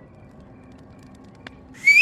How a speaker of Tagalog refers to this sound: Sumipol bigla yung boat operator. Pinapasunod na kami. Sumama na lang kami habang naglalakad siya papunta kami sa pampang. Walang imik si kuya pero sumisipol-sipol lang siya.